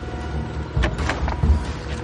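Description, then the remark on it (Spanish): A chauffeur opens a car's rear door: a sharp latch click followed by a couple of dull, low thuds and soft mechanical clunks over a steady rumble. “Fuera, el chofer abre una puerta trasera del coche.”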